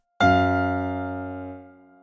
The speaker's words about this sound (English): Here we have an F sharp in the bass and an F in the high synth, which together sound like this.